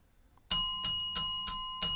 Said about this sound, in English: So how many was that? I don't know. That's five bells. Let's go.